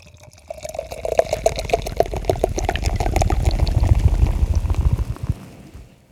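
Steady rain patters and splashes with a dense wet crackle, while a low rumble of thunder swells through the middle and fades toward the end. No voices.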